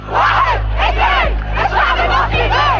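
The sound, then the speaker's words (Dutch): A large protest crowd in Tunisia chants and shouts together, loud and continuous, with rhythmic rising-and-falling calls repeating roughly every half second over a dense roar of many voices. “Massale protesten in Tunesië.”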